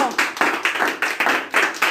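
Closing audience applause at Espacio Bohemio in San Luis: a steady wash of many hands clapping together, bright and fairly loud, with rhythmic surges roughly every quarter second and no voices standing out.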